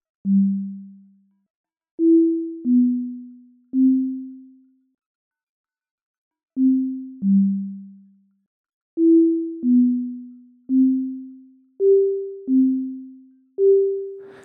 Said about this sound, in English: Here we're having a completely dry sine wave.